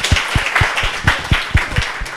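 Steady applause of about nine claps in an even rhythm, each one a bright sharp slap with a soft thump, over a constant hiss. No one speaks.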